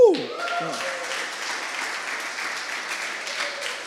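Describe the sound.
An audience applauds steadily during a sermon, a dense wash of many hands clapping that holds at an even level throughout, with a brief voice cutting in right at the start.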